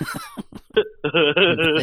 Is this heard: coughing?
yes